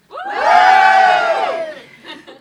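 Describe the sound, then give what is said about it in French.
A live audience at a public recording at the Hôtel Mercure Centre in Bordeaux, autumn 2022, cheers and whoops together in a loud burst of many voices that swells, holds for about a second, then fades into scattered shouts. “Aujourd'hui, vous l'entendez peut-être, on n'est pas dans le studio habituel de Passion Médiéviste et non, parce que nous sommes en public”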